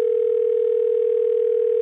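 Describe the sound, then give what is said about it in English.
A steady, unbroken telephone dial tone hums at even volume for the full two seconds, clear with no voices over it, as a call is placed to the head of Jeep for North America. “Yeah, so now I think it's time to actually call the big cheese.”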